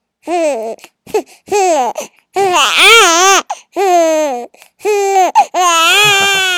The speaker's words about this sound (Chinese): 还不会说话，只能用哭声来给大家打个招呼了。